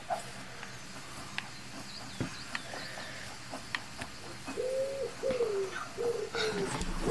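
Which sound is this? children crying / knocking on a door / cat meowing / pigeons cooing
pigeons cooing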